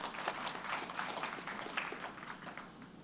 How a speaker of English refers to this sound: Anyway, thanks, guys. Great. Have a seat. Clap them. That was good, lads.